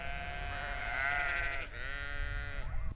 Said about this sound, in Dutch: En we gaan natuurlijk ook nog even wat gemekker en geblaat op doen.